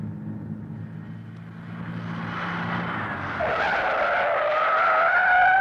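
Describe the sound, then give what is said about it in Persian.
A truck's engine rumbles, then its tires skid with a loud, rising squeal that grows stronger and holds through the end as the truck comes to a stop, with no voices. “این یه کامیون داره میاد ایوی نداره بهتر شما همینجا قایم شین تا کامیون رسید من میپرم جلوش تا بایستد شما ها سوار شید”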